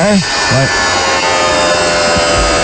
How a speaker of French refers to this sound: On peut le dire ce que c'est déjà, c'est un grinder. En français, une meuleuse. on aurait accepté Dremel aussi.